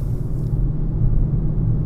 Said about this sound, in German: Ach, guck mal. Müllabfuhr kommt. Um 9.16 Uhr. Mhm. Eine Minute später als letzte Woche.